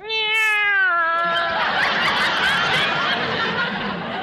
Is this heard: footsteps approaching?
no